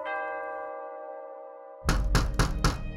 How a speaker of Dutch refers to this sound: Plots werd er op de deur gebonst en toen werd ze bang.